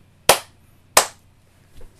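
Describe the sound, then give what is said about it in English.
Two crisp, loud drummer-style hand claps land about a second apart in a steady beat, followed by a faint softer tap. “I love your drummer clap, like you know, like it on like on stage.”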